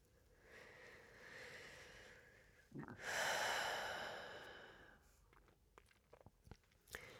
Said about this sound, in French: Inspirez profondément par le nez et laissez tout l'air ressortir par la bouche.